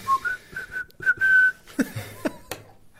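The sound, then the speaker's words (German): Someone whistles a short, melodic tune, with clear sustained notes rising and falling over a few seconds, followed by a couple of sharp clicks and knocks toward the end. “Du kannst so wunderschön pfeifen.”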